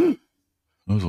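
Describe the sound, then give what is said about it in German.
A voice imitates a short, frightened gasp, the sound of fear, fairly loud, followed by a brief silence before another voiced breathy sound begins. “Was das ist der Klang der Angst? Wahrscheinlich.”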